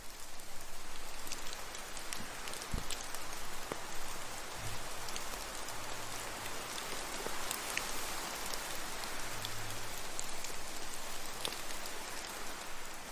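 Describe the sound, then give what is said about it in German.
Steady rain hisses without a break, with scattered sharper drops pattering on a surface and low gusts of wind rumbling underneath. No voices are heard. “Symphonie dieses Regens und des Windes.”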